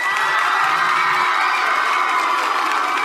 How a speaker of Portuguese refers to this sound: Palmas para ele